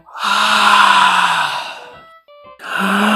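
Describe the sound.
A voice imitates a little bear's big, drawn-out yawn in a children's bedtime story: a long breathy, falling vocal sound lasting about two seconds, a brief pause, then the start of another yawn.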